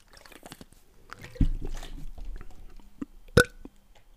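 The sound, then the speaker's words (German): Wet, squishy chewing and slurping of jelly dessert, with soft smacking noises, a low gulp midway and a sharp wet click near the end, with no talking. “Sagt der, wo gerade seit zwei Minuten schon Wackelpudding frisst.”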